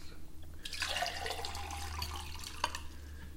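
Water streams steadily into a glass for a few seconds, a bright splashing pour over a low background hum, with a small clink near the end.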